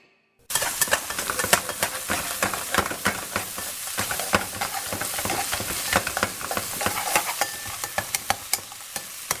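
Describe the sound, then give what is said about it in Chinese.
Food sizzles steadily in a hot pan while a utensil stirs and scrapes, sharp clicks and clatters popping up irregularly over the continuous hiss. No one speaks. “All right, so is is mommy cooking or daddy? Is it in the restaurant or at home?”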